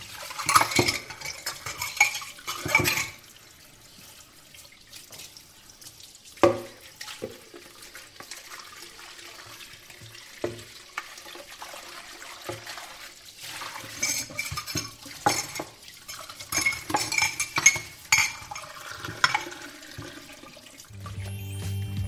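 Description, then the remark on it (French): Dishes being washed at a sink in a restaurant kitchen: irregular clinks and clatters of cutlery and pots over running water, with louder bursts of rattling scattered through a busy stretch with no talking. “puis dans les cuisines d'un restaurant où il est à la plonge.”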